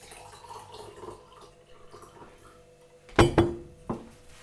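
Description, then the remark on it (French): Two small ice cubes clinking into a glass for a drink: a few quiet seconds, then two sharp, bright knocks in quick succession, followed by a lighter third clink. No one speaks. “deux petits glaçons là.”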